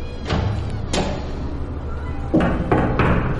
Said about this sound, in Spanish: A continuación toca la puerta.